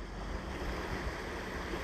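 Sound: ocean waves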